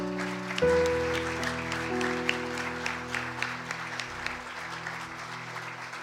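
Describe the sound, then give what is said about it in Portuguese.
A church audience applauds Jesus after a prayer, steadily for several seconds, dense clapping over a sustained organ or keyboard chord that holds underneath throughout. “Aplauda Jesus, queridos.”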